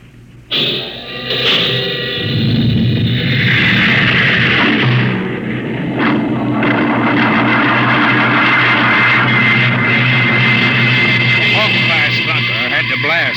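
A loud, sustained roar of rocket jets firing at takeoff, swelling suddenly and holding steady as a dense, rumbling blast with rising whines layered over it.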